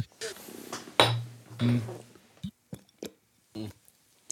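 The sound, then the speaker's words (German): Glasses clink together a few times in a toast, short bright knocks, mixed in with people talking and some handling noise. “Äh, Wohlsein. Ja, Prost.”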